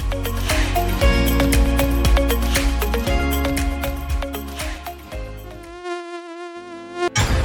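A mosquito buzzing sound effect in an advertisement for BQ Pest Control Services: a thin, wavering whine that stands out clearly near the end, after several seconds of dense, rhythmic, busy sound. No one speaks.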